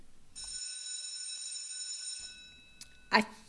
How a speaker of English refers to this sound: think I've just heard the morning tea bell ring